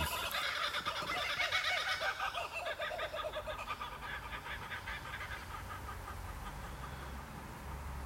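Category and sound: bird, birds calling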